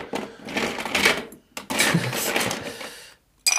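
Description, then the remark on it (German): Ice cubes clatter into a glass, two rattling bursts of fairly loud clinking separated by a short pause, then one brief final clink. “Ja, du kannst Eis? mir gerne noch eins reinladen, stimmt.”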